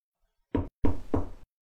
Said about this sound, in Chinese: 敲门声响了几秒钟